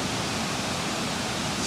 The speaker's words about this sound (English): I'm curious how the babbling brook is going to sound in the background. It'll sound like this.